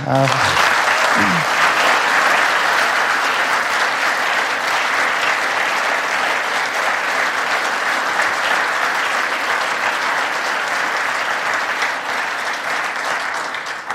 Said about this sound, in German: Können wir mal einen Applaus geben?